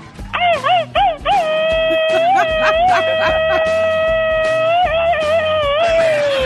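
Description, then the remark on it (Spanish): A Mexican party shout (grito) given as a party (parranda) gets going: a few quick warbling yelps, then one long, loud, high-pitched sustained cry held for several seconds before it wavers and trails off. “Cuando va comenzando la parranda, así grita uno, ¿eh?”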